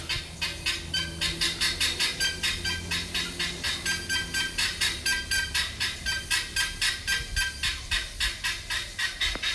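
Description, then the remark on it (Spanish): A peacock gives a long run of rapid, evenly spaced honking calls, about four per second, loud, continuing steadily without pause and with no one talking, among terraced rice fields with palm trees in the morning. “Entre las escalinatas de arrozales, con los colores, el color de la mañana, las palmeras de fondo y los pavos reales.”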